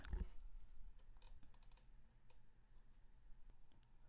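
Quiet, uneven typewriter key strikes clatter along at a steady working pace, each tap short and crisp against a low background hum, with no voices present.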